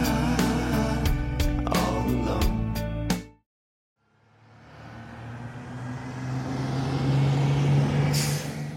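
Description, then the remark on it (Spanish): A large bus bound for Phnom Penh, Cambodia, rumbles with clanks and knocks, cuts out briefly, then a long loud hiss of air brakes swells over a low steady engine drone. “A la mañana siguiente, tomamos un autobús hacia Phnom Penh, en Camboya.”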